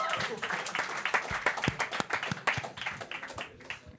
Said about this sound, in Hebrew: כפיים, כפיים